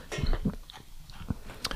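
Someone bites into and chews gingerbread, a few soft crunchy crackles at an uneven pace with quiet gaps between them, and no talking.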